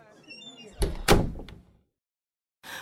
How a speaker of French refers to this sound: Pendant que j'aidais à rapatrier les restes du buffet, la porte de l'appart de droite, mon appart, s'est soudain refermée.